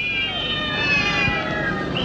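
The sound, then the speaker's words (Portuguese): A cat meows in a drawn-out, wavering cry that rises and falls, fairly loud, over a faint hum of background noise, in an advert for Tareco, a new ready-to-serve cat food. “Mas também temos aqui um anúncio de alimentação para gatos. Tareco!”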